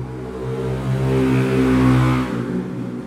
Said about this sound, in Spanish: bueno, las motos pedorras ya están incorporadas en el podcast. Yo creo que el logo del podcast voy a poner una moto pedorra.